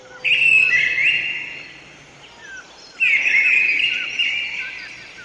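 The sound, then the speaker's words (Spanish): A bird sings two long, bright trilling phrases, each starting abruptly and fading out, separated by a brief pause, heard clearly with a soft ambient background. “Un trino maravilloso salió de su garganta.”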